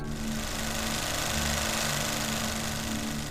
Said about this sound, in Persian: صدای نسبتا بلندی بود جا خوردم از اون صدا مرده گفت ببخشید آقا این صدای دستگاه دیگه داره حلقه نگاتیو رو میکشه عقب خیلی طول نمیکشه یه چهار پنج دقیقه دیگه آماده میشه